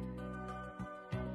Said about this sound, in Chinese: 喵！哦，一只小猫。